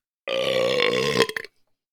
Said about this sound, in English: I really wanted to get a burp on … in my episode.